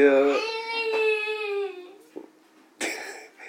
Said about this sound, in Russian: Папе надо рассказать э, э, э, своим, своим другим детям, как все устроено, чтобы они не плакали вот так вот по пустякам.